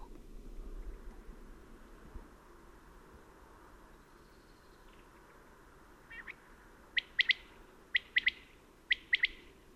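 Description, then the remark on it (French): A common quail sings its liquid three-note phrase several times in quick succession, sharp, after a quiet stretch of steady outdoor background hiss. “La Caille des blés”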